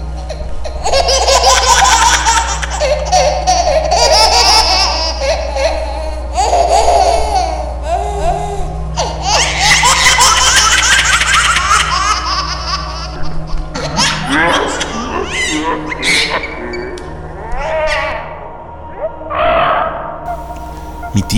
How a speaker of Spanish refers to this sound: la risa del bebé se escuchaba cada vez más y más fuerte, y poco a poco, en los cerros, se empezó a escuchar la risa de este bebé.